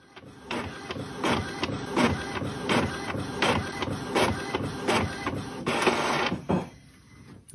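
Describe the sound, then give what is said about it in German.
A home printer prints a black-and-white label, running steadily for several seconds, its print head shuttling back and forth in a regular rhythm of whirring, clicking passes before the mechanism stops. Fairly loud, with no voices. “von dem ersten schwarz-weißen Etikett aus Annas Home-Drucker”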